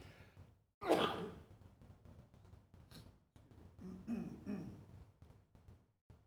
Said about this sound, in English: you get the full volume of that sneeze there.